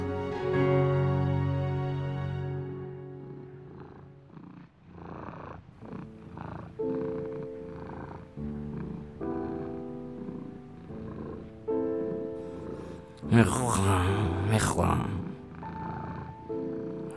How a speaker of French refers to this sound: Je pourrais ronronner ainsi pour l'éternité. Je me love dans le moelleux de ses bras, je reste allongé contre sa robe brodée.